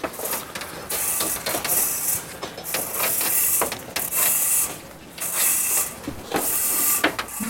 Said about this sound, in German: Jetzt steckst du mal das Ende mit der Kernlage nach oben hin in den Schornstein. Und jetzt einfach, einfach schieben? Einfach schieben.